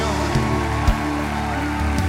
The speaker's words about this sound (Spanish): Y aplauso al Señor.